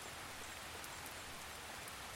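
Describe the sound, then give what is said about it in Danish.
Steady rain falls in a dense, continuous hiss, with soft scattered droplet taps pattering throughout, in slightly windy weather. The sound is even and moderately quiet, with no voices. “Han har været ude at gå en tur i det dejlige regnvejr og er nu på vej hjem.”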